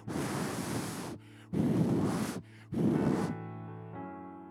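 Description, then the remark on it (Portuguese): Three loud, roaring surges of stormy wind and crashing sea waves rush in one after another, then cut away to a low, steady tonal drone. “E o barco ia de um lado para o outro, tentando chegar em Roma, e o vento.”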